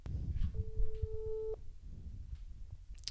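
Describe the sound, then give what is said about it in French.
The first ringback tone of an outgoing phone call, a steady electronic beep lasting about a second, heard clearly over low, rumbling background noise. “Première sonnerie. On a le droit à combien de sonneries Ah, ça, on va voir.”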